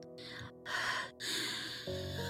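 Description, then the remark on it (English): Sharp, audible gasps follow one another in quick succession, loud, building into heavy, ragged breathing with no words spoken. “Breathe. Breathe, …. I'm breathing, okay?”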